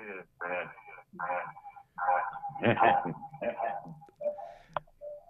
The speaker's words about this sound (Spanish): seguramente tienes algún radio o alguna computadora escuchando el programa, eh, porque se oye mucho eco, a ver si le puedes bajar o apagarlo de preferencia, para que no tengamos ese eco en la transmisión.